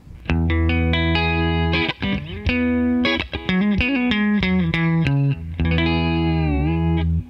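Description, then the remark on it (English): An electric guitar played with the pickup selector in the two position (single coil) and some compression on, bright and twangy with a Fender-like tone and light effects sheen, picking out a steady run of notes and chords for about seven seconds with no talking. “that's the that's the two position, and then.”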